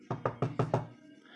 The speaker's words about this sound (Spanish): Se escuchó la puerta.